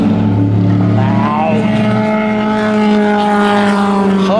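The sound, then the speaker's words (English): A Corvette race car's engine roars loudly at Le Mans 2016 in darkness and damp mist with spray, its harsh harmonic whine climbing in pitch as the car accelerates past, with a steady rumble underneath throughout. “Corvette.”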